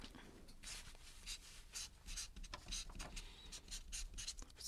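A pen scratches and squeaks across a stiff square autograph board (shikishi) in quick, irregular strokes, fairly loud, with no voices over it, as a radio show guest writes her dream for five years from now.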